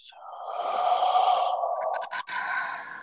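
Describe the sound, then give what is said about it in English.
A long, steady breath blown out through the mouth during a guided breathing exercise, after breathing in through the nose; airy, lasting a few seconds with a brief catch near the end before trailing on. “just took a breath in together, breathing in through our nose for a moment and out through our mouth.”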